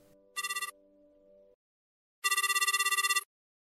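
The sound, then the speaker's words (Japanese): A telephone rings on an outgoing call made on 7 March: a short burst of fast, warbling electronic trill over a steady low tone, a pause of silence, then a longer trill, clear. “ロシアで女性に花を贈る習慣がある国際女性デーを翌日に控えた3月7日、私は意を決して、皆に電話をかけた。”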